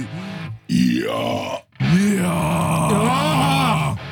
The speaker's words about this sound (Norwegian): Så det, var det raping? Ja, det, det var, ble veldig mye raping. Men Det høres ut som du kom fra en Marvel-film.